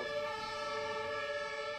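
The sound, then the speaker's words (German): An ambulance siren sounds continuously as the ambulance drives past, a steady, brassy tonal wail holding at an even moderate loudness, with no talking over it. “Die fährt gerade einen Krankenwagen lang.”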